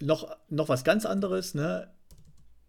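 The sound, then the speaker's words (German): Someone talks over soft, quick clicking of computer keyboard typing as they search for something, which carries on faintly after the voice stops. “Tippst du gerade nebenbei?”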